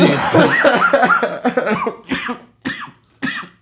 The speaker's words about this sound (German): Und jedes Mal, wenn ich in den Arm huste, schmecke ich wie muffig.